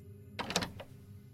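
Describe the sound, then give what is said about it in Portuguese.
The unlocked back door of a house opens with a quick cluster of latch clicks and rattles lasting about half a second, then fades into a quiet hum. “Quem quer que estivesse lá dentro tinha se esquecido de trancar aquela porta, pois estava aberta.”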